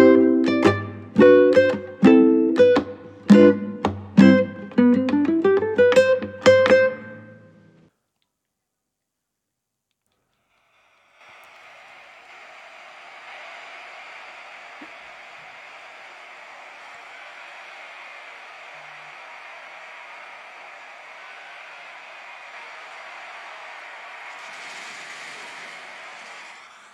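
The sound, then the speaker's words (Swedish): A brief melodic music sting ends abruptly, then after a pause a dense, steady din of countless overlapping clashes and cries rolls on, like a huge chaotic battle: a TikTok audio of a hundred Cleopatras fighting a million ostriches. “Och det ni precis hörde var alltså hundra stycken Kleopatra som slåss mot en miljon strutsar.”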